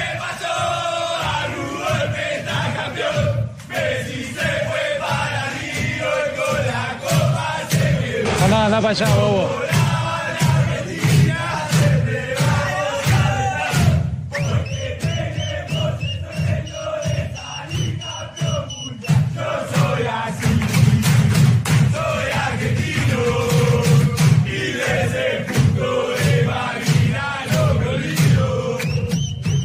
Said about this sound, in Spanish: La cancioncita del vestuario de Argentina se acordaron de Brasil y se acordaron de Inglaterra. Por eso hay polémica, esto en lo escuchamos.